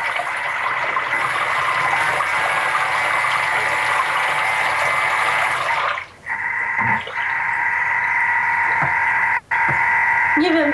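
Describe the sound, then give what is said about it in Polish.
A kitchen food processor, set to speed one for one minute, whirs steadily while water churns and sloshes inside, the motor hum holding constant with a couple of brief dips near the end. “słychać, jak się, tam ta woda miesza? Oczywiście, że słychać.”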